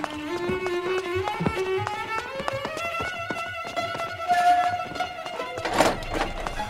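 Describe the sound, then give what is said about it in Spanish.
Rapid, hurried footsteps pound along in a steady running rhythm toward a detainee's cell, while a sustained tone swells and rises in pitch behind them. “Corrí rápido hacia la celda del detenido.”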